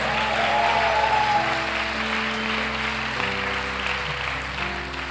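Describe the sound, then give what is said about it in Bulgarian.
A church audience claps for God loudly and steadily throughout, the dense applause carrying over sustained organ or keyboard chords that shift pitch every second or so. “О, ако ръкопляскаш, ръкопляскай, като че ръкопляскаш за жив Бог.”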